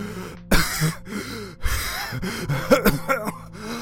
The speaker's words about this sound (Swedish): Du hostar, chip tappar och du har svårt att få luft. Det känns som om du håller på att kvävas.